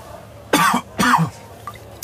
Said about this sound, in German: Ich glaube, ich muss schon husten, weil so viel geraucht wird in der Bar.